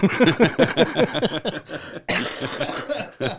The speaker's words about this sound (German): da ist er, Sorry, der Husten. Ja, ja, da ist er, der Husten.